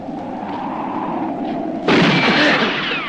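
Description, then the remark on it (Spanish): A low, steady rumble runs for a couple of seconds, then a single loud gunshot bursts out, an accurate shot that disarms a man, leaving a broad, noisy tail that rings on to the end. “De un certero disparo, Bart lo desarma.”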